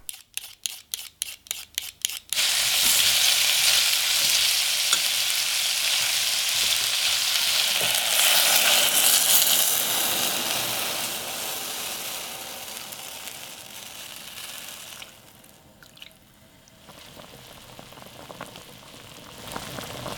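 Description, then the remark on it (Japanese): Cooking pork miso soup (tonjiru) with in-season taro: a quick run of sharp chopping taps, then a loud, steady sizzle of frying that softens midway and continues, with no one talking. “今朝は今が旬の里芋を使った豚汁のいい音それではお聴きください”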